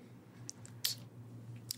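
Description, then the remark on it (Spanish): A handful of quick, sharp clicks and taps in an irregular patter, made by someone miming typing on an invisible typewriter to take notes, over a low steady hum. One louder snap lands in the middle, and nobody speaks. “lo anotan mi máquina de escribir invisible.”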